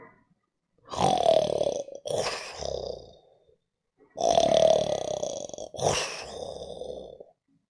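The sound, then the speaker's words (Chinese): Two loud, rough snores from a bear, Bao Xiong, fast asleep in its bear den, each a long rasping intake with a whining tone followed by a shorter grunting breath out, repeated in a slow even rhythm with no talking. “正在呼呼大睡。”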